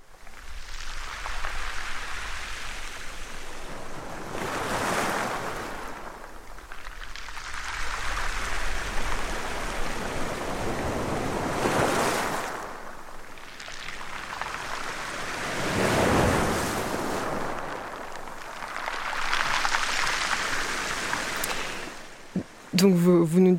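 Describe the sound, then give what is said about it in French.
Waves rise and wash in broad, hissing surges every few seconds along a rocky coastal inlet in a calanque, with a steady breezy rush beneath. A voice briefly cuts in at the very end. “Vous m'avez envoyé deux sons, donc on va commencer à en écouter un pour se mettre un peu dans, dans l'ambiance calanque.”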